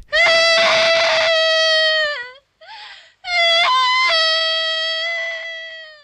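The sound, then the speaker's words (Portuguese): A girl lets out a loud, anguished wailing cry, two long sustained howls broken by a brief shaky breath, piercing with no talking. “E no que ela se vê sozinha, ela solta um choro horrível.”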